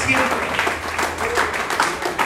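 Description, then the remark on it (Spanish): A church audience claps for God in a dense, steady wash of applause, loud and continuous, with voices calling out faintly beneath it. “Alguien aplauda al ese Dios real.”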